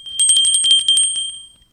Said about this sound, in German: Kennst du zum Beispiel den Brauch, dass an Weihnachten mit Hilfe eines Glöckchens in der Hand zur Bescherung gerufen wird?